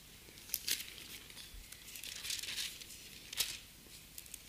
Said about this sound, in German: Ich muss mich kurz konzentrieren beim Blättern.